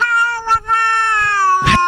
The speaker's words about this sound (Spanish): Pero gato Mayo, no te enojes si tienen distintos gustos las personas.